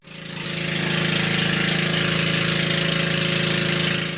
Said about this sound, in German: Doch dann wird der Motor angeworfen, der offen im schmalen Rumpf liegt.